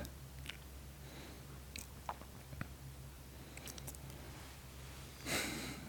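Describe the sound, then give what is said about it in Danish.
A stomach growling faintly, heard as soft irregular gurgles and squelchy clicks over a low steady hum, with a brief louder rumble near the end. No one speaks. “Det var en mave, der knurrede.”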